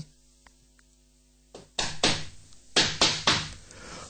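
Loud knocking on a bedroom door after a quiet moment: several heavy raps, a short pause, then another insistent series of knocks, with no voices.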